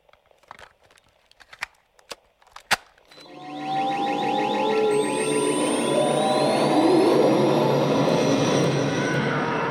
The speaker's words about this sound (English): you want to play that fancy new bumper?